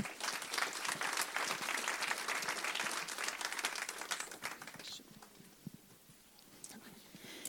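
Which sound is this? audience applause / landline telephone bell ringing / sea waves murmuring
audience applause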